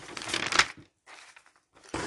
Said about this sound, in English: More page turning.